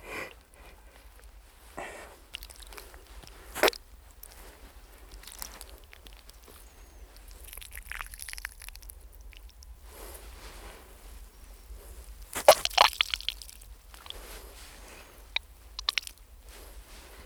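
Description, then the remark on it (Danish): Wet, squelching gurgles come in irregular bursts as a man on the ice squeezes blood out of the bullet hole in the neck of a shot, dead seal, with soft squishy pressing noises between them and a few sharper wet pops near the end. No one speaks. “Imens står han og presser blodet ud af skudhullet og kommer til at fnise som en lille dreng, når sælen laver brudte lyde.”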